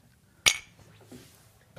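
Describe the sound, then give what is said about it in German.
A single bright clink of glasses touching in a toast, sharp, its ring fading quickly, followed by faint soft rustling and a small knock. “Prost.”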